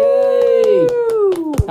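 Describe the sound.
Steady hand clapping, roughly eight sharp claps in a quick even rhythm, over a loud, sustained whooping voice that slides slightly downward.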